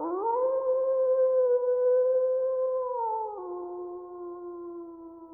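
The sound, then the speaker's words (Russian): A person imitates a wolf howl with one long, steady, sustained tone that steps down in pitch partway through and fades slightly, heard alone. “Я а делал а волк.”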